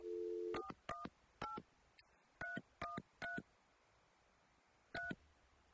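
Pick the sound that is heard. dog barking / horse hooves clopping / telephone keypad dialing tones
telephone keypad dialing tones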